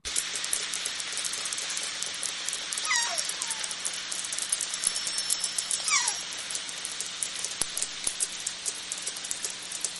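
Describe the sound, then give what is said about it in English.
Rapid killer whale echolocation clicks crackle steadily through a hissing underwater background, with two brief descending whistle-like calls rising above them partway through. “Um, and so this is what the clicks are really important for their foraging, and this is what they sound like.”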